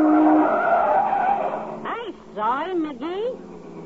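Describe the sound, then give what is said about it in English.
A car's engine hums steadily, then tires screech in a burst of sharp, wavering squeals from a skid as the car nearly collides with another car, loud, fading out within a couple of seconds. “Look out for that car!”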